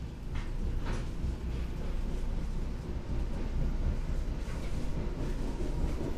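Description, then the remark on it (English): A steady, low rumble of a train riding along the rails on a ride back to Virginia, with a continuous rolling roar and faint rhythmic clacks and rattles, heard from inside the carriage. “The train ride back to Virginia did not help to clear Parker's head.”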